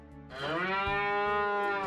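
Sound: cow mooing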